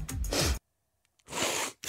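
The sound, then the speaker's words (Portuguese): A couple of short, breathy nasal sniffs with a brief silence between them, then another starting at the very end. Hissy and fairly loud, with no talking. “um pequeno fungar, não é?”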